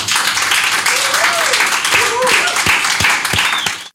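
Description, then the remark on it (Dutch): Sustained applause from an audience, a dense wash of many hands clapping steadily for several seconds, with a few voices faintly calling out beneath it before it cuts off. “Mag ik een applaus”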